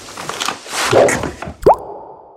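A water balloon dropped out of a window bursts with one sharp, wet plop and splash, fairly loud, after a stretch of soft rustling noise, with a brief ringing tail afterward.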